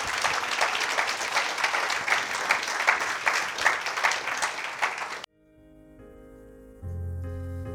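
A standing church audience gives the Lord sustained applause, a dense wash of many hands clapping loudly for about five seconds before cutting off abruptly, followed by soft sustained tones and a low steady hum.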